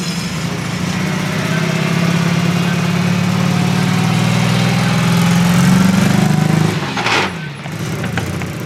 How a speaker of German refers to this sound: Das ist das Auto der Feuerlöschpolizei Marburg, über was wir uns unterhalten haben.